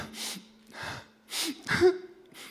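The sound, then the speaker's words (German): Someone mimics sniffling with their voice, imitating Adam sitting under a tree in paradise: about five short, breathy sniffs in an uneven rhythm, fairly soft, with no talking in between. “Es war nicht so, dass Adam im Paradies unter einem Apfelbaum saß und dann kam Gott am Abend in den Garten geschlendert und hat nach Adam geguckt und Adam saß da wie so ein Tropf am Baum ja, und hat geschnieft”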